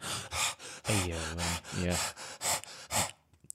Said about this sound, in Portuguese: Yeah. Vou até querer acontecer porque estão 45 graus aqui com os cães a arfar.